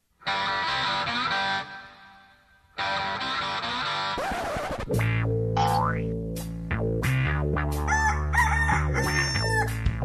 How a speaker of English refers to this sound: You're going to hear a rooster.